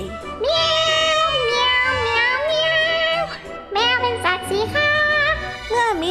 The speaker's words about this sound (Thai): ในใจกลางป่าแห่งหนึ่งทุกขค่ำคืนมักจะมีเสียงร้องเพลงประสานเสียงของเจ้ากลุ่มแมวได้สะท้อนไปทั่วทั้งป่า สิงสาราสัตว์แถวนั้น ได้ยินเป็นประจำ ในช่วงที่ส่งเสียงร้อง แมวทุกตัวนั้นก็ต่างพยายามตะโกนข่มกันไปข่มกันมา เสียงยิ่งดังลั่น ป่าเข้าไปใหญ่